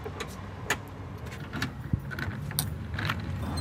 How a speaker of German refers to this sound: Ich klopf mal. Es wird uns aufgemacht.